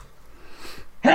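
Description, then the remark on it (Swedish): After a moment of faint background noise, a single sharp, loud sneeze bursts out, abrupt and forceful at the very end. “Prosit”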